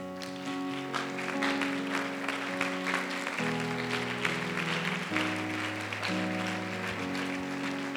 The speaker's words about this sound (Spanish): Ponte en pie, por favor. Dale un aplauso al Señor.